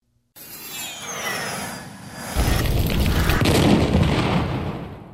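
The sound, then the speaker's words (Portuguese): A loud, cinematic Dolby Headphone surround-sound demo meant for headphone listening: a high descending whoosh sweeps across, then a deep rumbling boom swells in and keeps roaring to the end. There is no talking. “Ah, e muito importante, utilizem um fone de ouvidos, um headphone para ouvir esse demo.”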